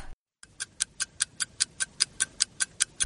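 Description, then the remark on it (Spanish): A clock ticks steadily after a brief moment of silence, with about fourteen crisp, bright clicks in a quick, even rhythm over a low background hum, and no voices. “Los Reyes Magos me trajeron un reloj.”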